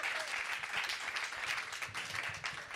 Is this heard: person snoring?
no